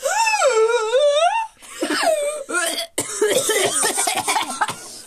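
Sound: coughing fit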